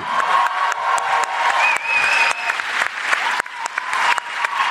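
Sustained applause from a crowd, dense steady clapping with a few whistles and cheers rising above it, loud throughout the whole stretch without any talking.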